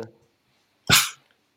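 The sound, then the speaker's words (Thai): A single sharp crack and short fizzing hiss of a can being opened, close and fairly loud, fading within a fraction of a second. A brief murmur of voice comes just before. “แล้วก็ได้ยินเสียงเปิด เปิดกระป๋องเราเอง”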